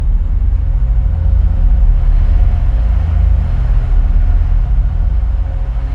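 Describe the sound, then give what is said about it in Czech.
A tram rumbles past in the distance, a steady low roar that holds evenly for several seconds with no voices over it. “já slyším ten zvuk tramvaje, která je ode mě daleko, ne protože je daleko, ale ta tramvaj je ve mně.”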